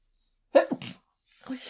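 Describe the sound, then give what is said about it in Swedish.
A single sharp sneeze bursts out, quick and explosive, followed by a brief breathy tail and then a short murmur of voice. “Prosit!”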